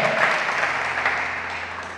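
A church audience applauds God during a sermon, a dense wash of many hands clapping at once with no pauses, holding loud throughout and tapering slightly at the end.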